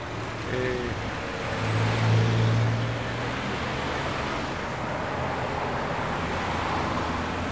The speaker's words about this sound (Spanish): Y mientras son las 12.38 del mediodía en Torreón, Coahuila, así se escucha la ciudad.